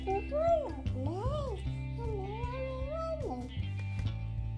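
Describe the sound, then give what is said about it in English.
A cat named Missy meows several times in drawn-out, rising and falling calls, fairly loud, over a steady low hum in the background. “Are you trying to talk as well, Missy?”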